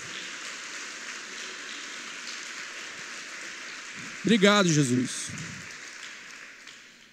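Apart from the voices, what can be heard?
audience applause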